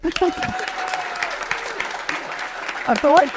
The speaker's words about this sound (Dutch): Ja, dat is een applaus waard.